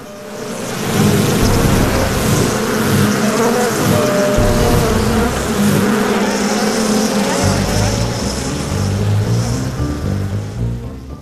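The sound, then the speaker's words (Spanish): A dense swarm of bees buzzes loudly and continuously, a thick droning hum that fills the whole scene with shifting, overlapping tones and no pauses. “abejas comienzan a retirarse.”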